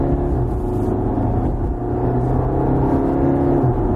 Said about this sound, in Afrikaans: Turbo traagheid wat maak dit mens nie sommer 'n gaping vinnig kan vat in stadsverkeer nie. Discovery Sport die 81 SE se 2 liter turbo diesel stoot 132 kW en 430 Nm wrinkrag uit.